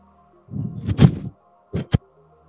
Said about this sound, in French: les trois capsules de sauvetage qui viennent de sortir, situées en dessous de vous.